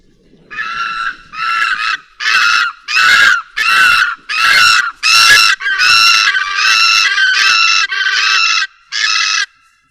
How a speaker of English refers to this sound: This was the call of the red naped ibis. I am sure you'll remember this one.